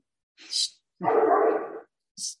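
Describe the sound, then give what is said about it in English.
A German Shepherd dog barks, one loud, drawn-out harsh bark framed by two short, sharp, higher-pitched yelps before and after. “crazy German Shepherd of mine.”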